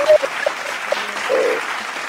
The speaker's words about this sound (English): Let's give it a round of applause, people.